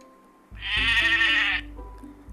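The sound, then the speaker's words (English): A single loud, wavering goat bleat lasts about a second, with faint low musical tones continuing underneath and after it. “One little goat jumping on the bed.”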